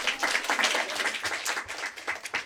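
A crowd applauds steadily, many hands clapping in a dense, continuous patter that stays fairly even in loudness throughout, with no voices rising above it.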